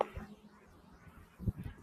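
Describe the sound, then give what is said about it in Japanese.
Low, steady rumble of car traffic passing, with a heavier surge of engine and road noise near the end; no one speaks. “車がちょっとうるさくてすみませんね。”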